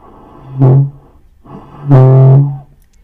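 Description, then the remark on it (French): A wind instrument blows a high C, first as a short note and then as a longer, held one. Both are loud and slightly raspy, with no talking. “Je peux vous montrer un dos aigu.”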